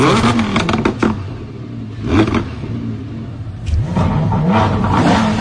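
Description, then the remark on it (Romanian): A Lamborghini Huracan engine revs loudly in several sharp bursts, its pitch climbing and falling with each blip of the throttle over a steady, rumbling idle. “acum vreau să vă dau sunetul de la Huracan, nu de la Aventador.”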